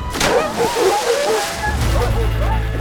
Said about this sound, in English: When he reached the edge, he stopped himself and stepped neatly aside, smiling as Cerberus careened into the river Styx.